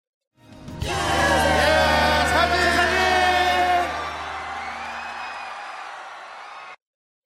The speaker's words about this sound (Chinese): 因为我选的这个背景音乐是一个 live 的版本，所以会有很多欢呼等等的一些音效。